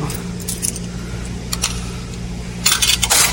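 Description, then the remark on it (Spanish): Coins, one dollar in total, clink into a washing machine's coin slot after clothes are loaded: a couple of separate metallic drops, then a quick rattling cluster near the end, all over a steady low mechanical hum. “Y vamos a poner las monedas.”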